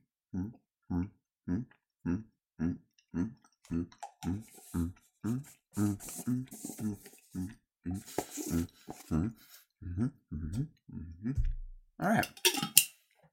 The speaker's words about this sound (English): All right, you got a food with you? Maybe you just can grab a an apple that's near you or something and let's chew some food together and count 23 bites to see what that feels like.